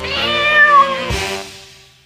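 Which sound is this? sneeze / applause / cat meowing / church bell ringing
cat meowing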